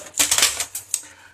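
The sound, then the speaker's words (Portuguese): Ice cubes clatter into a cocktail shaker in a quick burst of bright, hard clinks, several knocks tumbling over each other, then a couple of lighter rattles as the cubes settle. “Então, assim, ó, gelo, taca gelo porque tá calor. Bote gelo na sua coqueteleira”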